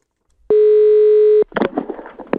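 A loud, steady telephone dial tone hums at one mid pitch for about a second as a Danmarks Radio reporter places a call for an interview, then cuts off into a short flurry of clicks and rustling handset noise. No one speaks.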